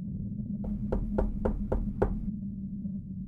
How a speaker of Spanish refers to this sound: Fue entonces que hubo un suave golpe en la puerta de la oficina.